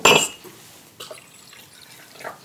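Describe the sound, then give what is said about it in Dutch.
A sharp clink of glass opens, followed by the soft trickle of a drink being poured into glasses, one of them a tea glass, for a closing toast, with another faint clink near the end. Fairly quiet, no talking. “Ik ga de glaasjes uh, inschenken.”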